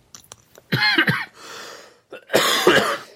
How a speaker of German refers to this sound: Husten halt ist auch ein Spaß für Groß und Klein.